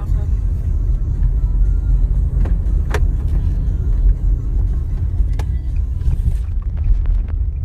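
A car driving at night on a late-night drive, with a steady, loud low rumble of engine and road noise throughout, broken by a few sharp clicks and taps.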